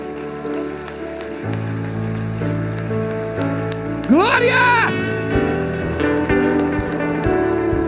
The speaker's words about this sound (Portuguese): Levante suas mãos, aplauda o Senhor bem forte lá no alto.